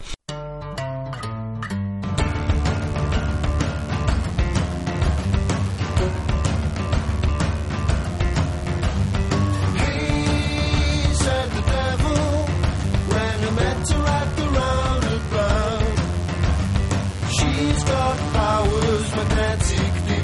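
A rock song plays loud and steady, a full band with driving drums and guitars kicking in after a short sparse opening of a couple of seconds.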